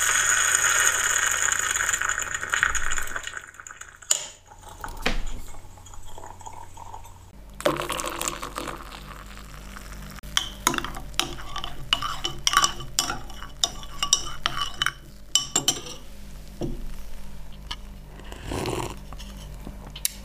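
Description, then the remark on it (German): A spoon clinks repeatedly against a large cup while stirring milky coffee, a run of sharp little taps over a low background hum, preceded by a brief burst of rushing, hissy noise. “Ja, wie du hörst, habe ich mir hier gerade schon wieder mit einer großen Tasse Milchkaffee gemütlich gemacht.”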